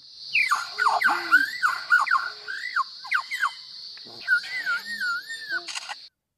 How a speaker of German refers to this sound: Besonders berüchtigt ist der australische Leierschwanz. Der kann zum Beispiel Handys und Fotokameras und sowas perfekt nachmachen.